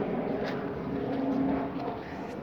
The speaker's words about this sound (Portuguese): Caramba, ele tá dando a volta. Que filho da mãe. Eles estão fazendo zerinho no ar. Os aviões estão fazendo zerinho no ar. Tá de sacanagem com a minha cara. Isso é a Força Aérea.